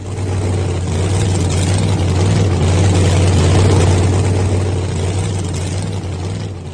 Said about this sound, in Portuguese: O caminhão passou sem parar, deixando-a aflita.